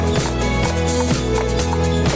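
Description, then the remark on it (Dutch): Steady clip-clop of horse hooves ticks along in an even rhythm in a Christmas song, a handful of bright knocks blended into a full, loud musical backing. “Klik, klak, klik doet het paard.”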